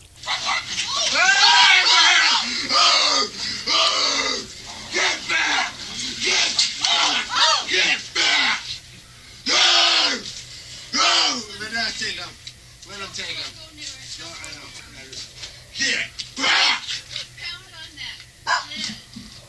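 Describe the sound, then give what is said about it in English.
A man in a barn screams and yells at a grizzly bear and slaps it, in loud, strained bursts again and again, with brief pauses between outbursts and some scuffling noise underneath. “A screaming man slaps a grizzly bear to protect his girlfriend and dogs after stumbling upon the animal in his barn.”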